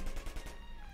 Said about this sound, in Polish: Słyszysz na zewnątrz strzały?